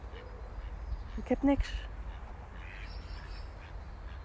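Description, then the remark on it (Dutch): A brief, loud burst of duck quacks from two mallards (wild ducks) around the middle, with a person speaking softly over steady outdoor background noise. “Twee wilde eenden.”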